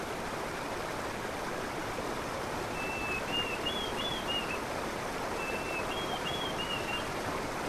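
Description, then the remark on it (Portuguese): A steady, full rush of flowing stream water swelling in volume as it rains upstream fills the whole scene, continuous, with a couple of brief whistled bird calls rising faintly above it partway through. “Podemos ouvir as águas se avolumando.”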